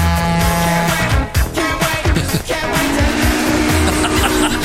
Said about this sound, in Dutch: trein nog een keer langs op het eind. Ja hoor. Ja, ja. Daar komt hij aan. Ja. Bomen dicht.